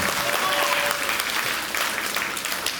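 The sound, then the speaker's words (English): Scattered, lukewarm applause from a church audience clapping for Jesus, a steady patter of clapping hands at moderate volume with no cheering, sustained evenly for a few seconds. “You guys are clapping like you're depressed.”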